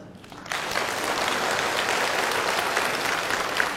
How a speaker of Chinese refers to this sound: 我郑重宣布，凡是鼓掌的都被评为本次学习的劳模。因为鼓掌的人呢，都是给别人捧场的人。